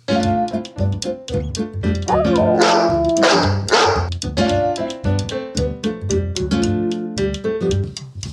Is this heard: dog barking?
yes